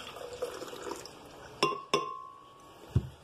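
Liquid milk pours into a blender in a soft, splashy stream, followed by two bright glassy clinks that ring briefly, then a single dull thump.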